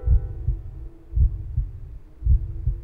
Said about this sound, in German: Nichts. Außer dem staccatoartigen Trommeln meines eigenen Herzschlages, das ich in meinen Ohren festgesetzt hatte.